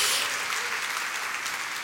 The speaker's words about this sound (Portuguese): Dá uma salva de palmas ao Senhor.